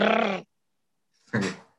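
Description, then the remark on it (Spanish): A person imitates a growl in two short bursts separated by a pause: a rumbling, voiced rasp followed by a breathier, rougher snarl, both fairly loud. “Ay, gruñeme.”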